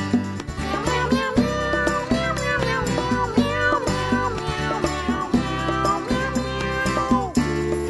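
Repeated cat meows with rising and falling pitch ride over a steady, busy musical backing with a driving beat, filling the whole stretch without pause.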